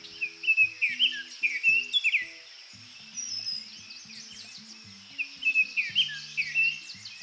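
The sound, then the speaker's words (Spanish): Birds sing at a lagoon, with bursts of bright, twittering chirps rising and falling in several phrases over a steady high insect-like hiss, while soft low sustained tones hum underneath. “En estas lagunas se pueden observar diferentes aves”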